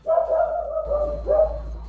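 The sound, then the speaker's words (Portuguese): A dog named Folgado barks in drawn-out, whiny bursts, two of them in quick succession, clear with no one talking. “o cachorro tá participando legal do podcast.”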